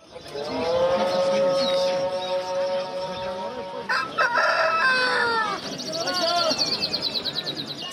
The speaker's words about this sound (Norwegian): Selv bønneropene overdøves av de fjærkleddes kvitter på Kabuls fuglemarked. Krigen virker langt unna den lille gata som går under kallenavnet Fuglebursmuget.